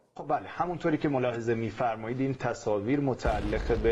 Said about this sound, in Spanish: Esta es una de las dos explosiones que devastaron la ciudad de Kermán, al sur de Irán, el miércoles 3 de enero último.